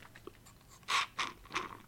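Three short, noisy slurps, like air and liquid being sucked through a metal straw from a mate gourd, the first sips of the mate, coming in quick succession with no talking.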